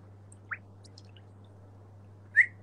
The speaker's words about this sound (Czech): To bylo co? Ještě jednou? Tam někdo zapískal, nebo slepice už je ve vodě, nebo?